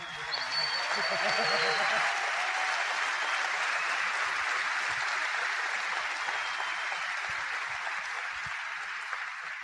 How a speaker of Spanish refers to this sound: Denme un aplauso a los venezolanos.